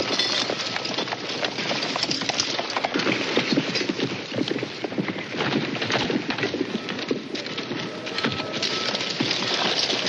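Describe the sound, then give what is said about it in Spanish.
Horses' hooves clip-clop steadily, many overlapping hoofbeats forming a busy, continuous clatter with shuffling movement as a group of soldiers with Native American hostages reaches an army camp and the foremost riders get down from their saddles, with no one talking. “Los más adelantados bajan de la silla de montar.”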